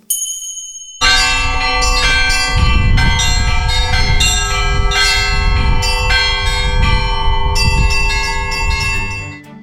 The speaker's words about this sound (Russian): В Пелеве находится Спасо-Преображенский мужской монастырь. Он восстановлен и действует – если повезет, вам разрешат подняться на колокольню по старым высоким ступеням и узкой винтовой лестнице. Позвонить в колокола.